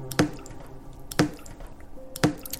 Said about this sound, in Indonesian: Lalu aku lanjut menulis laporanku sampai aku mulai mendengar suara tetesan air Kenapa malam ini banyak sekali gangguan?